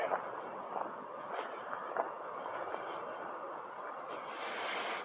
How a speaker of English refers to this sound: That sounds like a cricket.